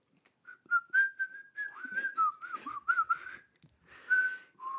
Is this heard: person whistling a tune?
yes